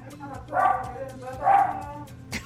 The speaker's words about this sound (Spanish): bueno, pero ¿cómo se llama el que está ladrando?